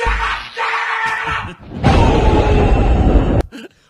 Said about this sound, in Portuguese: Põe de novo o raio. Não, põe de novo aí que esses efeitos especiais estão maravilhosos. Põe de novo o raio.